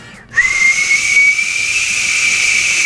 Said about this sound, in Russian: по нарастающей. Я сначала думал, что это такое? Это чайник со свистком оказался.